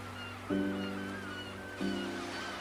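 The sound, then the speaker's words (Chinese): Sea waves wash in a steady, soft rush around a sailing ship under way on the open sea, with two low humming tones swelling in at intervals over the continuous water noise. No one speaks. “自从上一次完成绘本之书《绿野仙踪》，已经过了一星期，丽卡等人所搭乘的船只依然在大海上行驶着，寻找金钥匙的冒险依然持续着。”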